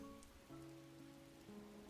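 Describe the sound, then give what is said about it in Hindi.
Soft, steady patter of raindrops falling continuously, heard by two people sitting silently in a car, blended with low sustained musical tones humming underneath, quiet and even throughout with no voices. “दस मिनट तक दोनों चुपचाप बैठे रहे बस बारिश की बूंदें ही शोर कर रही थी”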